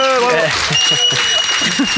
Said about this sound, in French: On dit bravo. On, bah bravo. Applaudissements du public peut-être. Allez.